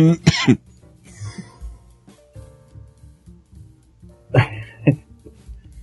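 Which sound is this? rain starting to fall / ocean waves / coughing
coughing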